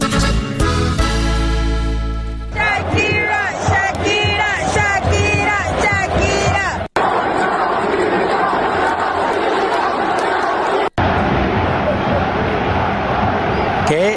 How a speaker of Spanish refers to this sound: Piqué es abucheado en el juego de fútbol y esto está en boca de todos.